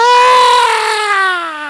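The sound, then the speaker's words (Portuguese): A newborn baby cries in one long, loud, high-pitched wail that slowly falls in pitch and fades slightly at the end, with no talking. “enquanto esse grita, aquela que o gerou sorri. Ela estava em dores. Agora o menino nasceu, ele chora e ela se alegra.”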